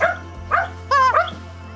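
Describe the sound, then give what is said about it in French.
A dog gives a few short barks in quick succession, one sharper and more tonal than the rest, over a low steady hum with no talking. “Arrivederci Arrivederci Au revoir, le chien”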